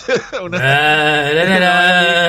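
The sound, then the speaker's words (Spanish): A human voice mimics a sheep's bleat: a short rising call, then a long, loud, quavering nasal "baa" with a shaky vibrato that holds steady for nearly two seconds. “Esa parece como un, como un balado de, de, de, de oveja, una...”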